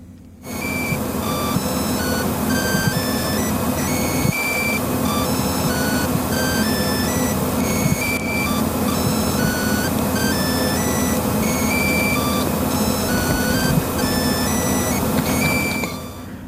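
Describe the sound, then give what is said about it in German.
A PowerBook laptop's power adapter gives off an electrical whine, picked up by a microphone lying on the PowerBook: a steady hum with several thin, high-pitched tones layered over it, holding unchanged at a fairly loud level throughout, with no voices. “Ja, das kriegt ihr aus eurem äh, Netzteil-Dings, das da im Powerbook drin steckt, raus.”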